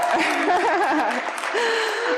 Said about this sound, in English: I love it. I, yes, that, that deserves a clap.